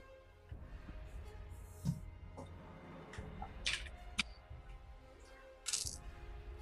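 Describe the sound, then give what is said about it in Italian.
A handful of eleven six-sided dice and one eight-sided die clatters and rolls across a table, a run of sharp clicks and rattles scattered over several seconds, with no talking. “E tu tu 12, sono 12 dadi da 6 comunque. No, 11 dadi da 6 e un dato da 8.”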